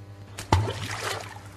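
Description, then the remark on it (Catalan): A single sharp splash as a bottle holding a written message drops into water on a sunny afternoon, followed by a brief bubbling, sloshing tail that fades out. A low steady hum runs underneath, and nobody speaks. “Uh, no, aquí no caldria l'efecte del xof.”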